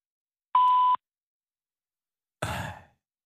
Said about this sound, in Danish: Velkommen til telefonsvaren. Indtal en meddelelse efter klartonen.